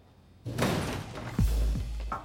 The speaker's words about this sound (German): Die Türen des Haupteingangs fliegen auf. Er kann nicht sehen, was passiert, hört aber, wie mehrere Personen den Laden stürmen.